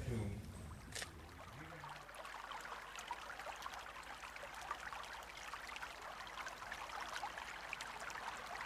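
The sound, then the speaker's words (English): The Gave River in Lourdes flows steadily, its continuous rushing and babbling filling the whole scene at a moderate level, with a brief low murmur at the very start. “We're sitting here by the banks of the Gave River here in Lourdes.”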